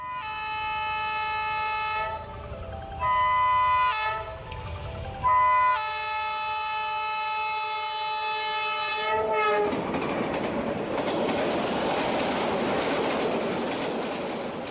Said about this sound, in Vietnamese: thế nhưng lần này trở về Hà Nội, ông cảm thấy vô cùng may mắn khi có cơ hội trải nghiệm tuyến tàu đầy ký ức những năm tháng tuổi trẻ của mình từ ga Hà Nội đến nhà máy xe lửa Gia Lâm nằm trong chuỗi sự kiện của lễ hội.